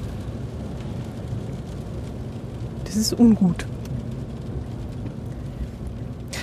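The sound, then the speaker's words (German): Steady low rumble of road and cabin noise inside a small Smart electric car while driving, fairly loud and continuous throughout, with a man briefly speaking over it midway. “So, vom Lärm her finde ich ihn relativ laut. Also da sind unsere Autos wesentlich leiser, aber das ist natürlich ja, smart und ist ja auch alles ein bisschen einfacher und Kleinwagen eben.”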